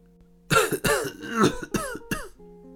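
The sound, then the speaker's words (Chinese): Several coughs in quick succession, five or so rough, throaty bursts spaced unevenly over about two seconds, fairly loud against a quiet low hum, with no talking. “大师傅咳嗽了几声：”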